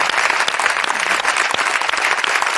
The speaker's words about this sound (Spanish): Eh, un aplauso para Sancho en el recuerdo.